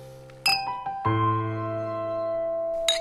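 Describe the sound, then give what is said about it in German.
Drinking glasses clink together sharply in a toast, followed by a bright, sustained ringing tone that lingers and slowly fades, with another light clink near the end. No voices are heard. “und alle ließen noch einmal die Gläser erklingen, sich der Innigkeit und Gemütlichkeit, die ihren schönen Bund immer fester und fester verknüpfte, recht aus dem tiefsten Herzen heraus erfreuend.”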